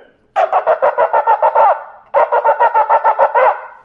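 A shofar sounds teruah: two loud runs of rapid staccato blasts, about nine short bright notes each, separated by a brief pause, with no talking over them.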